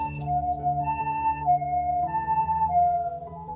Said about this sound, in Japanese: おっと救急車が来ました、うん、目の前に来ました、うん、近いよドップラー効果になるか